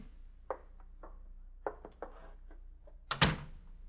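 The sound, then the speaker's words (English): A wooden door creaks and knocks open with several short clunks and thumps, ending in a louder, fuller bang as it swings wide to let visitors in, in Missouri. “Door's open. Come on in, boys.”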